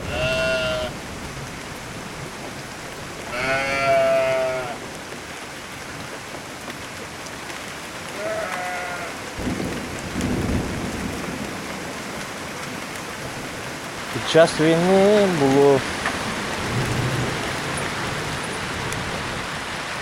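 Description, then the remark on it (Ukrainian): A steady, heavy summer downpour hisses throughout, with several sheep bleating over it at intervals as they run for shelter, and a brief spoken phrase near the end. “Поки ми розмовляємо біля корів, Сонце швидко ховається за хмари і починається рясний літній дощ.”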